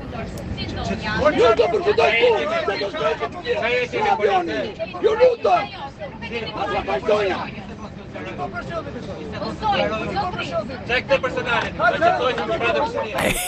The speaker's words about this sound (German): Hinter mir in Reihe 3, die schreien sich gegenseitig an in einer Lautstärke. Wirklich, es waren tumultartige Szenen, Leute. Ich habe natürlich, weil ich ein Fuchs bin, ähm, eine Sprachnachricht gemacht. Hört euch das mal an. Das war im Flieger.